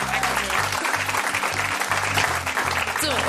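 A crowd applauds steadily with dense, continuous clapping for a few seconds, while low, sustained tones pulse underneath.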